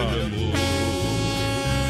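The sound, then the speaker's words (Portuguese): A loud truck air horn, played for truck drivers on the Brasil Rodeio show, blasts in one continuous, sustained honk lasting about two seconds, its brassy multi-tone blare shifting slightly partway through and staying forceful throughout. “Ei, vou ter que botar aquela buzina pros caminhoneiros aqui, meu companheiro.”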